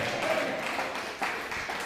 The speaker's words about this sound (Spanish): Dale un fuerte aplauso al Mashiach. Bendito sea su nombre.